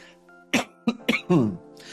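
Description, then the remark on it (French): A fairly loud series of three short coughs followed by a longer rasping throat clear, all in quick succession over a faint background hum, from a person who is still a little sick. “Pardon, je vais tousser, je vais faire des trucs chelous aujourd'hui, je suis encore un peu malade.”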